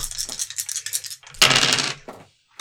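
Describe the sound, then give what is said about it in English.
Four dice are rolled for a physique roll in a game. They rattle and clatter in a flurry of small hard clicks, then a louder tumbling burst as they spill across a hard surface, ending with a couple of isolated ticks. No one speaks. “Uh, you roll four dice and add your physique.”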